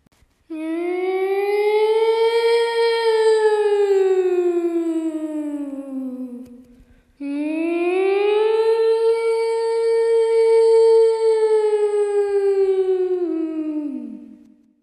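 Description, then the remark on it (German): Two long, loud civil defense siren wails, each rising and slowly falling in pitch over about seven seconds, with a brief gap between them and no voices. “Nun begannen die Sirenen.”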